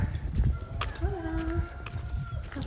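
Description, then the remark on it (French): A rooster on an upper floor crows once in a long, drawn-out call with a rising then steady tone, somewhat muffled, over a low rumbling background. “il y a un coq à l'étage.”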